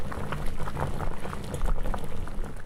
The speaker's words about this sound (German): Glasnudeln die muss man immer, immer Wasser in kochen.